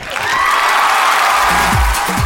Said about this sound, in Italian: L'autocelebrazione con gli applausi sì. finti.